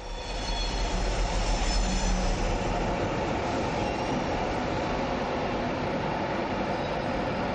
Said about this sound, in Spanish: Un tren llega a su andén.